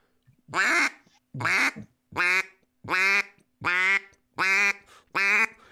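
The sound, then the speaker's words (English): A duck call sounds seven loud, drawn-out quack notes in a steady, evenly spaced series, clear, with no one talking. “that's a yep. longer note. That's kind of the variation of your quack.”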